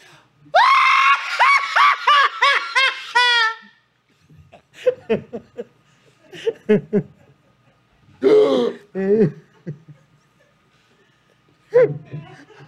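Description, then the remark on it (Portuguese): A voice imitates a child crying so hard it seems to have swallowed a fly and loses its breath: a loud burst of rapid, strained wailing sobs for about three seconds, followed by scattered softer gasping, choking sounds with pauses between them. “Tem um choro da criança muda, porque ela vai chorando, tanto, parece que ela engoliu uma mosca, que é assim, né?”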